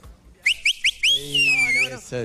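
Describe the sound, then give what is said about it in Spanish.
A loud, shrill whistle made with two fingers: three quick rising chirps, then one long sustained blast that dips and climbs again, with a voice sounding underneath and briefly after. “Si yo pudiera chiflar como vos, tendría mi banda de reggae.”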